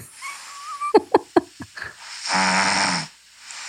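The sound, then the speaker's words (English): A recording of someone snoring, played from a phone: a few short snorty clicks and gurgles, then one long, loud, rattling snore on the in-breath, tapering into quiet breathing. No one speaks. “I have eight hundred audios of … snoring because this is a consistent theme in our life.”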